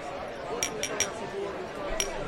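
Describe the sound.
Steady audience chatter at an awards show, many voices murmuring and overlapping at once, with a few short bright clinks like glasses or cutlery in the first second and again near the end.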